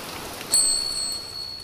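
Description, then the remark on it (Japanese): Steady heavy rain pours down one morning in a dense, continuous hiss, with a brief high-pitched bell-like ringing cutting in for about half a second midway. No one speaks. “翌朝雨がじゃんじゃん降る中男の部屋に手紙が届いた”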